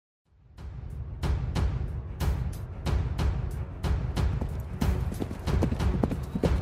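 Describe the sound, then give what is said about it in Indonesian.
A horse being ridden hard, its hooves galloping at a steady, rapid pace, each strike a sharp thud over a continuous low rumble, loud throughout with no voices. “Mimpi itu bermula ketika aku sedang memacu kuda.”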